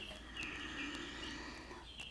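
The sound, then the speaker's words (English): A cat plays with a noisy pet toy, which gives off a faint, steady chirping, bird-like electronic tone, broken by a few soft clicks and taps as it's batted around. No one speaks. “my cat has decided just now to play with one of his toys that makes noise, so he's joining us in making some joyful sounds here.”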